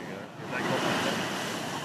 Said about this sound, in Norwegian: I neste øyeblikk er det en monsterbølge som treffer land sør for Sydney. Bølgene er minst fem meter høye. Flere bølger knuser verandaer på bolighus som ligger nærmest vannkanten.